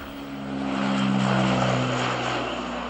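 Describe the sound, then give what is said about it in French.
A French Navy Atlantique maritime patrol turboprop plane drones overhead as it flies over a capsized boat, its steady propeller hum with strong low tonal bands swelling slightly as it passes, then easing off a little; no voices. “La Marine nationale envoie l'un de ses brigades atlantiques survoler le bateau retourné.”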